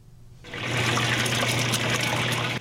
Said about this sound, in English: White dough tumbles in a bubbling deep fryer, gradually turning gold and filling out. It must be continuously flipped so the dough is cooked evenly, but the egg inside must also be fried just so.